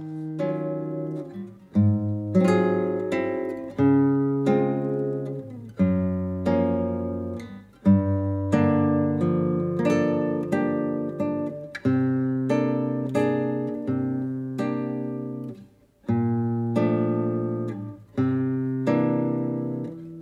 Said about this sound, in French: peut-être s'écouter aussi une dernière musique, euh, le thème du vent justement. Euh, voilà, donc il y a une musique beaucoup plus posée et justement qui permet de diversifier un peu ses euh, sons. Avec cette fois-ci utilisation de la guitare.